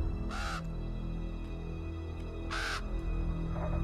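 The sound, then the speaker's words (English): A raven caws twice, two harsh, raspy calls about two seconds apart, over a low, steady background hum with no one speaking. “Can a raven be good?”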